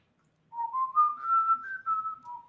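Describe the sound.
A short whistled tune from the video game Wild Arms, clear, its smooth notes gliding upward and then settling back down over about two seconds, with no talking.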